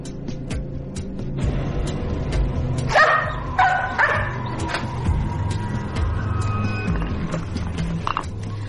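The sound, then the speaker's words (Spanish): Four large dogs used to finding things bark and yip in quick bursts around a noisy outdoor scene, with a cluster of sharp barks in the middle over a steady low rumble and scattered clattering. “Vamos a intentar hacer una experiencia con estos cuatro perros, con estos cuatro grandes ejemplares que están muy acostumbrados a encontrar cosas.”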